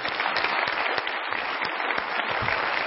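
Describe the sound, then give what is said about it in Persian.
A seminar audience applauds themselves, clapping steadily and densely for a few seconds, a continuous wash of many hands applauding at moderate loudness, with no one speaking over it. “خودتون رو تشویق بفرمایید مرسی”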